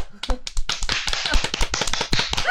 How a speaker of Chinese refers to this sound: 忍不住，忍不住为他鼓掌。